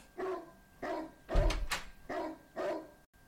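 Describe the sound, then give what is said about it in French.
A neighbour's dog barks repeatedly in a steady rhythm, about five clear barks, with a louder, noisier burst in the middle; no one speaks. “excusez-moi, c'est encore le chien du voisin qui fait des siennes.”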